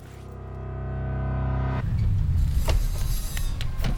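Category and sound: vehicle, car driving and stopping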